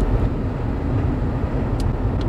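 A steady low rumble of road and engine noise inside a car being driven in Marin County, past San Quentin prison, continuous and fairly loud, with a couple of faint high ticks near the end and no voices.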